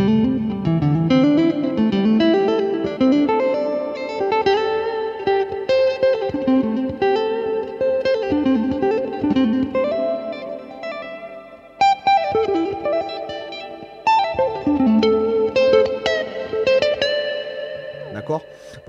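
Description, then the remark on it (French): An electric guitar drenched in effects plays a flowing C major seventh arpeggio that climbs and repeats an octave higher, bright sustained notes ringing over each other with echo and chorus. “Par exemple, avec un arpège de Do majeur 7, il monte l'arpège, il fait la même chose à l'octave ici et à la même chose à l'octave ici.”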